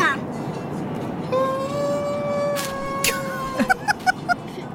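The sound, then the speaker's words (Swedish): A warbling, tonal whine with a metallic reverberant ring from a toy echo microphone that came with a Happy Meal, played in a car on a long drive, sustained for a couple of seconds and then breaking into short pulses over steady car-interior rumble. “Ja, en slags så här ek echo-mikrofon”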